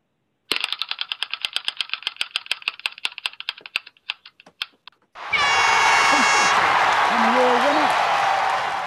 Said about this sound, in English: Let's move on to spin our uh, wheel of synchronicity. Boom.